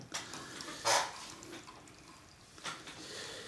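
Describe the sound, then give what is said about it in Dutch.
A drink pours into a slightly tilted glass, a soft, steady hissing splash with a couple of brief gurgling surges, quiet, with no one talking. “Ja, probeer het glas ietsjes te kantelen. En voor de microfoon is natuurlijk ook, eh, ook leuk. Dan, dan horen we nog wat.”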